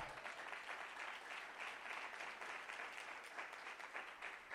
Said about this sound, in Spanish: Alguien da un aplauso al Señor.